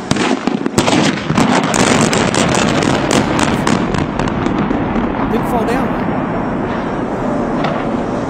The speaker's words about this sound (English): all these explosions went off. And the thing didn't fall down.